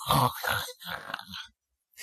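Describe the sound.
A voice imitates a child's rattling snores: a few throaty rasping breaths in quick succession, loud and gravelly, then a short silence before another breath begins.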